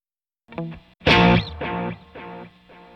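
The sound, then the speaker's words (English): A tape echo delay effect, an emulation of a multi-head tape echo set to head three: a loud, distorted, harmonically rich note rings out and is followed by about three evenly spaced repeats, each fainter than the last. There is no talking. “That was head two, I'm going to go to head three.”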